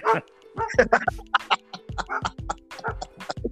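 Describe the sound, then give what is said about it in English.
A big dog, the size of a small bear, barks in quick, loud bursts mixed with drawn-out howling tones, repeating irregularly through the whole stretch, with a voice briefly chiming in. “you they're howling at me in the background.”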